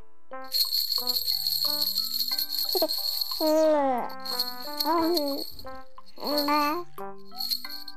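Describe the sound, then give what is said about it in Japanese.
A toy rattle is shaken to soothe a baby, in bright, steady bursts over a plinking little melody, broken by a few sliding, high-pitched coo-like vocal sounds. “あらうちの赤ちゃんあなたが持ってるおもちゃが気になってるみたい”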